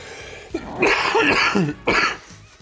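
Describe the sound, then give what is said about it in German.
A harsh coughing fit: a rapid run of raspy coughs for about a second, a brief pause, then another hard cough burst, with no talking. “Ich werde das ganze Husten auch rausschneiden und ans Ende als Outtakes ranpacken, dass einfach 30 Minuten lang nur Husten kommt dann am Ende.”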